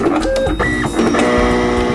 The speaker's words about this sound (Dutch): Ze willen kijken of ze kipnuggets kunnen 3D-printen. Start 3D-printer.